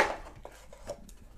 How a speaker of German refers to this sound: Jetzt würfel ich für dich. Jetzt oder? würfel mal für mich. Mal schauen, was hier dabei rauskommt. Neun.